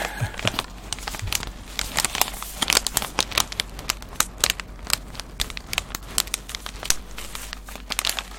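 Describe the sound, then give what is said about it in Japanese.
Continuous crinkling of a plastic bag of coffee beans bought at Tully's, with dense irregular crackles and rustles throughout and no voices. “タリーズで買ってきたコーヒー豆の音です。”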